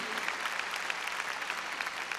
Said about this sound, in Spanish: A ver, démosle palmas fuertes a nuestro Señor. Muy bien.